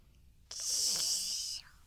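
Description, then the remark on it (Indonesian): A child's voice imitates an airplane with a single steady, breathy whooshing hiss lasting about a second, fairly loud, then stops abruptly. No talking. “eh kalau suara pesawat gimana”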